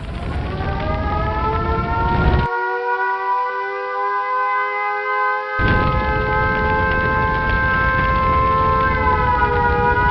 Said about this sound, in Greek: Στις 8 και 25 το πρωί σήμανε συναγερμός και κλήθηκαν τα σωστικά συνεργεία.